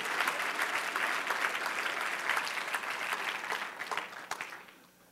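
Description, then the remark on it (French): An audience claps steadily for several seconds, a dense patter of many hands that holds strong before fading out near the end. No one speaks over it. “Là, vous pouvez applaudir.”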